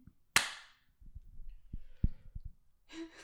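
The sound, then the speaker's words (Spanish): A single sharp, loud clap rings out near the start, made to sync the recorded sound with the camera, followed by soft low thumps and shuffling, then a brief breathy rustle at the end. “Es para sincronizar el sonido de este con la cámara.”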